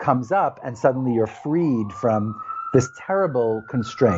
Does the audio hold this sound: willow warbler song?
no